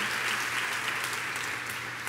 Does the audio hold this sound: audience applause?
yes